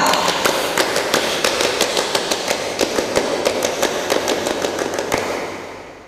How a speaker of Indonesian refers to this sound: Oke, dua kali tepuk pramuka.